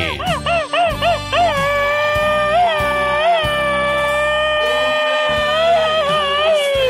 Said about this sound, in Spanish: Este grito ametrallador es para María Eugenia Hernández, de su hermanito, … que le dice, carnalita, te quiero mucho.